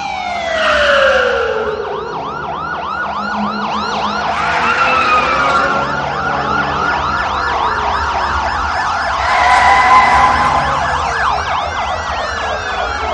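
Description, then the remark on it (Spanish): Several police car sirens wail and yelp at once as patrol cars surround a building, their rising and falling tones overlapping loudly and continuously, with a low traffic rumble underneath and no voices. “Los coches patrulla rodean el edificio.”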